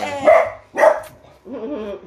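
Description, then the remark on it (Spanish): A dog barks twice in quick succession, loud, followed by a softer, wavering vocal sound that trails off. “Ese es el perro oficial del, podcast.”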